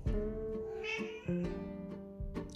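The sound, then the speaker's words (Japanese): A cat named Kobu meows repeatedly, a string of insistent, drawn-out cries with short pauses between them, and no talking over it. “日常生活から出てきた意見や印象などをあの撫でることにしたんだよねあ猫コブやめて”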